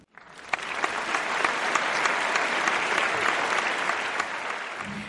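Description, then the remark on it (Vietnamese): A conference audience bursts into sustained applause to welcome a speaker, a dense, steady wash of many hands clapping that swells quickly and holds at an even, loud level for several seconds before easing slightly at the end. “Xin hãy dành một tràng pháo tay thật nồng nhiệt chào đón tiến sĩ Ngô Đức Vượng.”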